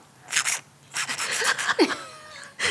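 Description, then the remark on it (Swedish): Hissy puffs from an old-fashioned perfume atomizer bulb being squeezed: one short spray, then a longer run of quick bursts with faint squeaks, and a final puff, with no talking. “Att en sån här, en, en, en eh, puff, en sån gammaldags en puff. puff. Ja. Som man trycker på för att spraya.”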